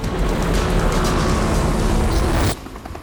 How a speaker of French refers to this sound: Le détenu a profité d'un moment au parloir pour s'échapper. Il grimpe dans l'hélicoptère et s'envole,